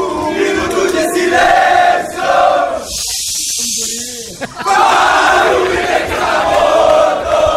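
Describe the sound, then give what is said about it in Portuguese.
A large crowd of Mazembe football fans sings a chant together, their own Portuguese-language version of a Grêmio supporters' song, in loud massed voices holding steady rhythmic lines. The singing breaks midway for a couple of seconds of harsh hissing noise, then swells again. “olha só que o pessoal do Mazembe lá é tão fã, né, da, da torcida do Grêmio, que eles gravaram uma versão dessa música aqui em portuguesa.”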